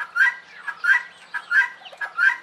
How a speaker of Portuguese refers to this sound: A polícia lá tá tentando achar o dono de, um, de uma galinha da Angola, cara.